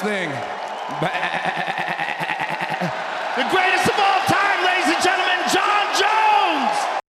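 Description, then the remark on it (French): A man's voice, fighter John Jones's cry after his victory, mimics a goat (the GOAT), letting out a long, quavering bleat that wobbles up and down in pitch, loud, over a noisy background with a few sharp knocks. “Vous savez ce que c'est, ça Le GOAT C'est le cri de la chèvre, du GOAT en anglais, le meilleur de tous les temps.”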